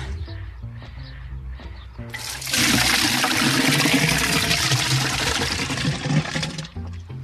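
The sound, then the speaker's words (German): Buckets of water and horse manure are tipped into a household biogas tank in one loud, sustained gushing pour lasting a few seconds, with quieter sloshing and clunks before and after. “Ein paar Schaufeln Pferdemist und zwei, drei Eimer Wasser.”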